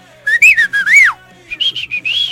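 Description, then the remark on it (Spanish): A person whistles a short melodic signal meaning 'come out or I'm leaving' in two phrases: a quick run of rising and falling notes, a brief pause, then a second set of clipped tones, loud with nothing else around. “el chiflido-- sales o me voy”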